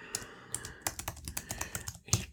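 Rapid typing on a computer keyboard, a quick irregular run of sharp clicks and clacks with a couple of louder keystrokes, no voices present, as two topics are typed onto cards in Trello.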